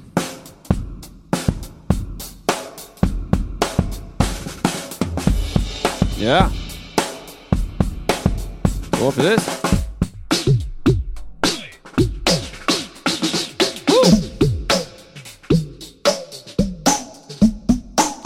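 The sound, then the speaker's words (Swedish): A drum kit fitted with a Yamaha EAD10 plays steady, punchy hits with an arena reverb effect added, making each strike ring out like in a large arena, with brief voices chiming in now and then. “Lite arena här.”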